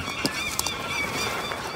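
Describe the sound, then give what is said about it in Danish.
A flock of geese honks in overlapping, steady calls, with a few sharp flapping bursts as the birds lift off into flight. Continuous, with no voices. “Så gik gæsten ellers på vingerne.”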